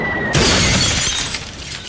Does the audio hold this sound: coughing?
no